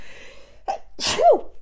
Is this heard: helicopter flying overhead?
no